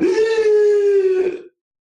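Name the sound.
imitated gasp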